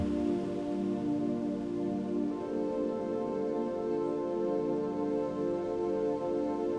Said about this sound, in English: Listen, you can hear water falling not from the cup of tea, not from the ocean waves. It's a gushing, flowing sound. You glance over your shoulder and spot a large fountain not too far